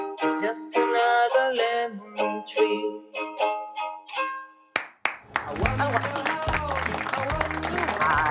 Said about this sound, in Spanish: Fantástico. Por favor, pero estoy escuchando desde Asturias esos pedazos de aplausos.